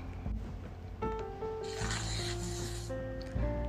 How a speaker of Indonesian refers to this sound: Hanif merobek selembar kertas dari buku tulisnya. Kertas itu kemudian diremas-remas jadilah gumpalan kecil.